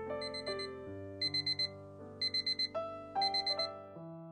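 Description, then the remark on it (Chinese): An alarm clock rings with a steady electronic melody, broken by bright, high-pitched beeps that come in quick bursts of four, repeated several times. No one speaks. “随着一声闹钟的响起”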